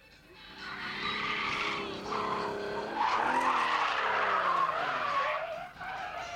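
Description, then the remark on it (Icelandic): Car tires screech at the Bíladagar car festival in a long, continuous high-pitched squeal that wavers and rises in pitch, loud and sustained for about six seconds with engine noise underneath. “Er þetta Bridgestone? Eh, Bridgestone deck eða hvað er þetta?”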